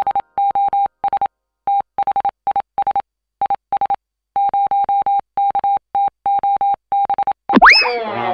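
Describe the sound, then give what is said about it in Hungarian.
A steady, mid-pitched tone keyed on and off in a rapid run of short and long Morse code beeps, loud and clean, ending with a brief sweeping, warbling electronic sound. “A műsorszám Morze megjelenítést tartalmazott.”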